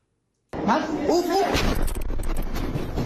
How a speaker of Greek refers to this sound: Εκρήξεις, πυροβολισμοί και μάχες μένονται στο Χαρτούμ. Οι εχθροπραξίες πλέον συνεχίζονται για δεύτερη εβδομάδα